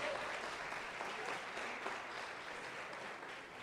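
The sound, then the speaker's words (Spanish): Steady applause from an audience for their leaders, many hands clapping in a dense, continuous patter that holds at an even level for several seconds without any voices. “para que envíe un fuertísimo aplauso a sus líderes.”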